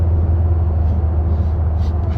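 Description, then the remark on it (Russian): A steady, loud low rumble of a vehicle driving on the road on the third day of a trip hauling old scrap metal from one part of the country to another, the engine and road noise droning continuously without a break from start to finish. “мы сейчас едем уже третий день, везем этот металлолом старый вот, из одной точки страны в другую”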